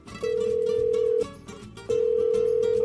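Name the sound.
telephone ringback tone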